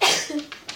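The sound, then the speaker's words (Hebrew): A single sharp sneeze bursts out, followed by a couple of faint breathy aftersounds as it trails off. “אתן שמות לב עכשיו, בריאות.”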